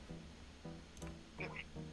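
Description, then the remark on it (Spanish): A voice mimics a duck, giving a few short, nasal quacking bursts in quick succession, moderately loud, with a couple of higher squeaky notes near the end. “Pues aquí haciendo cuac, lo normal, viviendo la vida”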